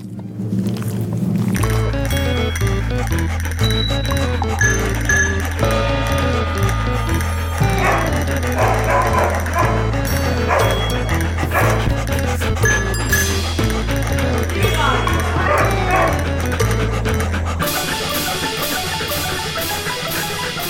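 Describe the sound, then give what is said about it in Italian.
A bouncy theme jingle plays loud and continuous for about twenty seconds, with a pulsing bass line and bright layered melody, shifting to a brighter, busier section near the end. “ma lancio la sigla.”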